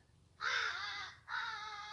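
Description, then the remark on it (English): Two loud, harsh crow caws, the first drawn out and the second following after a brief pause, with no voices present. “See, even crows get miserable and unhappy.”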